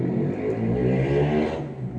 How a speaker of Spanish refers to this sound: Uh, pasó una moto.